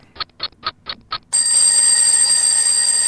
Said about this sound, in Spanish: ¡Ay! ¡Ay! ¡Ay! Otra vez el despertador.